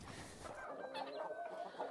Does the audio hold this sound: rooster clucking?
yes